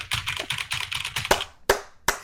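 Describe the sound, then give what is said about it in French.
Rapid, clacky typing on a Q95 mechanical keyboard, fairly loud, with a quick run of keystrokes followed by a few sharper, spaced-out presses near the end. No one speaks. “Le son euh, du q 95 euh, euh”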